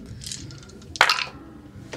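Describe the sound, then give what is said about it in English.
Six dice clatter onto a hard tabletop in one sharp burst, rattling briefly before settling, with faint clicks of handling before and after. Fairly loud, with no talking. “Yeah, it's how many dice have I got? I should have six.”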